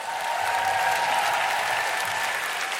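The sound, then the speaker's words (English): A live audience at the Roundhouse, during the Spoken Word Festival, applauds to thank everyone there: a dense, steady wash of many hands clapping at once, loud and sustained throughout without a pause, and nobody speaks over it. “Can we have a big, big round of applause and thank you to everyone at the Roundhouse?”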